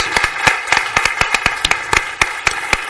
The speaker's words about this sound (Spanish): no quiero que dejemos de agradecer la intervención de Esther con un aplauso